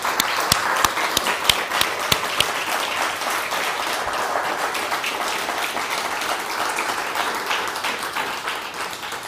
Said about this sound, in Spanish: ¿Te parece? Vamos a darle un fuerte aplauso al Todopoderoso.